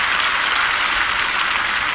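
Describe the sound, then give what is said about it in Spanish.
A steady wash of applause played as a background sound effect, celebrating someone who won a football tournament with friends; many hands clapping continuously at an even, fairly loud level for the full two seconds, with no voices heard. “Te pongo aplausos. Aplausos de fondo por el mono que ganó su torneo de fútbol con amigos.”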